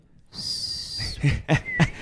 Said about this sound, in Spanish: Intenté silbar, pero no me salió. Bueno, no importa.